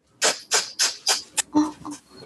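A quick series of about six sharp, forceful nasal exhalations in a breathing exercise, the belly pulled in to push air out through the nose as fast as possible, loud, puffing out in a fast steady rhythm before trailing off into softer breaths.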